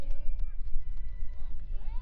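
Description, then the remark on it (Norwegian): An audience at a podium prize ceremony applauds the fifth-place finisher: a dense patter of many hands with scattered cheers and voices rising over it, holding at an even level for about two seconds. “Stor applaus igjen.”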